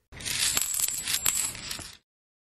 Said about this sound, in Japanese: 次の日の夜のことですおじいさんはたくさんの小判が落ちる音で目が覚めました誰かが窓から小判を投げ込んでいるのです